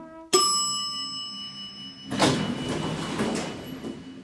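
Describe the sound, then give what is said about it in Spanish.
A sharp metallic chime rings and hangs in the air, then a door slides shut with a broad, rushing rumble lasting a couple of seconds, with no voices. “la puerta, la cierro, la subo, la bajo.”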